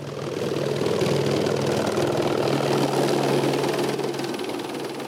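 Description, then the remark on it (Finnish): Helicopters of the Brazilian environmental agency Ibama, which monitor the rainforest, take off and land: an engine roars steadily with a chopping rotor throb and whining turbine tones, sustained throughout, with no voices. “Metsähallitus Ibaman helikoptereita nousee ja laskeutuu.”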